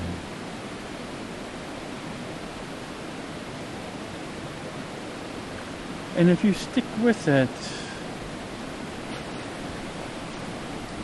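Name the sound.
flowing river water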